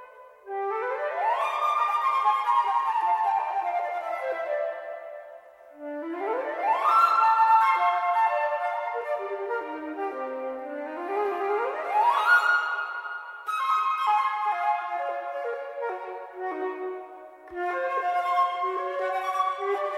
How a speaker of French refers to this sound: une miniature pour euh, flûte euh, de Charles Coquelin qui s'appelle Le rire vainqueur